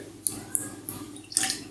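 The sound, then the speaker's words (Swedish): Rum, a Samaroli Enmore 94 at 50 percent, pours into a glass in a few quick glugs, each a short splashy spurt, ending in a slightly longer trickle. No one speaks. “Man, Bara, man gick ju igång på att hälla upp den bara.”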